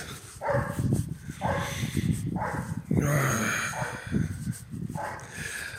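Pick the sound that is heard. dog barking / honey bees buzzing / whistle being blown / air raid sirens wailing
dog barking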